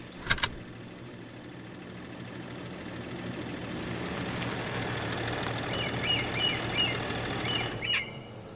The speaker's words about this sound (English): For now, I have to figure out where the hell I am and if that noise my car is making signals an impending explosion.